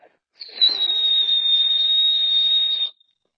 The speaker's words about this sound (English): And well, to close us off, I would say, do you think you could do the whistle for us?